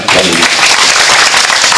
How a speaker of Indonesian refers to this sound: Terima kasih juga untuk Kanitia yang luar biasa kesaksiannya. Tepuk tangan lagi.